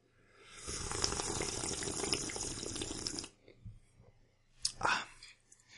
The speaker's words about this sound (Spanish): A ver, le voy a dar el sorbito, fíjate, lo estoy dando.